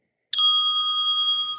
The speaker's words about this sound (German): Und äh, die Desk Bell klingt dann nämlich so.